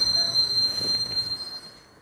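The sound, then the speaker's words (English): A train brakes to a halt, a high steady metallic squeal of the wheels ringing over a low rumble that fades toward the end. No one speaks. “Then the you hear the like train stop and you're like, oh, okay, and then you get up and then you go back to the real world.”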